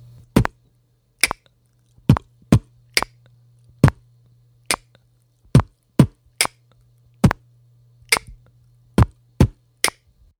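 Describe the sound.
A beatboxed pattern of one kick, one snare, two kicks and one snare repeats at a steady tempo, with sharp percussive hits in small groups over a faint low hum and no talking.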